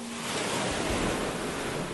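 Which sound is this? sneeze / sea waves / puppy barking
sea waves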